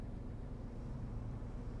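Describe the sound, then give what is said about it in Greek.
Steady low engine and road rumble fills a car's interior, a constant muffled drone with no voices and no breaks for the whole moment. “Και είναι ακόμα ένα podcast στο αυτοκίνητο.”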